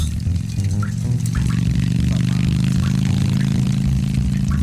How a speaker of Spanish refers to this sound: Oh my god, con razón aquí hay unos rieles. ¿Por aquí va a pasar esa moto?